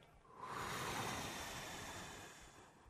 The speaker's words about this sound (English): So I do our typical protocol, which is our breathing techniques. So I tell her to breathe in, to hold it, and to breathe out.